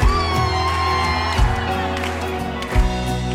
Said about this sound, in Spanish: Bien arriba, los jóvenes de Cristo. A ver el grito de los jóvenes de Jesús.